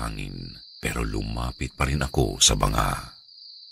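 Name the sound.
crickets chirping at night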